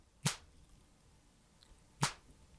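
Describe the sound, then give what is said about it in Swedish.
Two crisp, sharp snaps made as a male bird hops from one stick to another and claps its wings together, spaced nearly two seconds apart, each loud and abrupt against an otherwise quiet background with no talking. “Och varje gång han hoppar från en pinne till en annan så hör man...”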